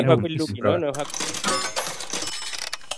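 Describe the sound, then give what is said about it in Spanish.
A brief voice gives way to a bright metallic clatter of a coin dropping into a jukebox slot, rattling and jingling for a couple of seconds before settling. “lo de, la, moneda que sonaba el ruido de.”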